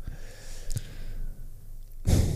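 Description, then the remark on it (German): Someone blows their nose: a faint quiet stretch with a brief sharp puff of air, then a loud, rushing, hissy nasal blast at the end. No one speaks. “Nur Nase putzen.”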